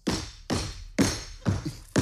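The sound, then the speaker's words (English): Five heavy, deliberate stomps, demonstrating an angry child stomping up the stairs, land in a steady rhythm about every half second, each a loud thud with a dull low body and a short rumbling tail, with no talking. “he stomps back down the stairs”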